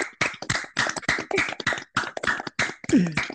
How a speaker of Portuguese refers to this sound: Então, gente, uma salva de palmas para a professora Sara, por favor.